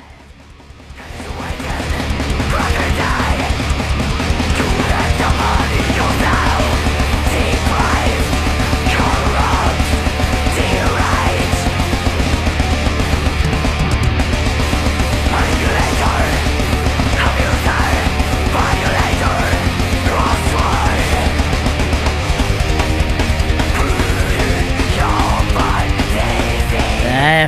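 A loud, dense heavy metal track plays continuously from a playlist after a brief fade-in, with pounding low end, distorted wall of guitars, and harsh shouted vocals cutting through throughout.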